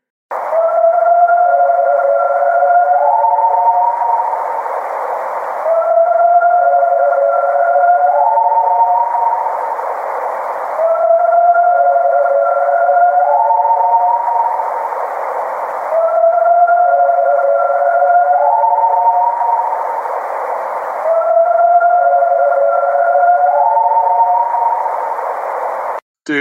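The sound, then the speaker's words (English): A recording of an alleged Sasquatch vocalization: a howling call in three layered pitches, some sliding upward, repeated five times at steady intervals over a constant band of hiss, with no talking. “It's not a coyote. It's not a bird owl. I mean, that's a Sasquatch, hundred percent.”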